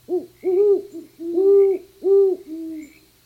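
A great horned owl gives a deep, resonant series of five hoots in an uneven rhythm, clear, with no voices.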